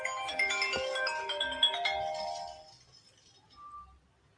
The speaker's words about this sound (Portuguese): Eu vou precisar atender o telefone aqui só um minutinho, tá?